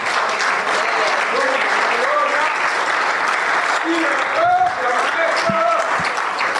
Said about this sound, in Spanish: Denle un aplauso al Rey de Reyes y Señor de Señores.